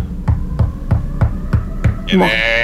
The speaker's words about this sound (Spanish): Toca la puerta del cuarto.